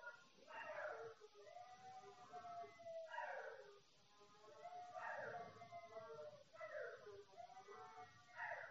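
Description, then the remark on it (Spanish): A faint, distant ambulance siren on the street outside wails in steady rising and falling cycles, repeating about every two seconds, with a soft background rumble underneath. “Ahora se escucha la ambulancia, eso se puede escuchar.”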